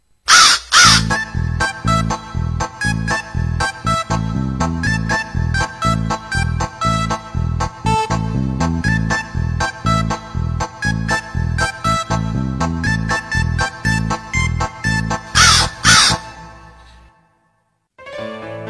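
A crow caws over and over in a quick, steady rhythm, harsh and loud, set against a musical backing, before the sound fades out near the end.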